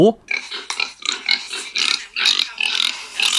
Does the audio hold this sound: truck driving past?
no